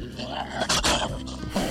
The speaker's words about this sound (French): Je veux pas travailler avec un sale clébard. Et tu grognes pas. Tu ressembles même pas à un chien policier.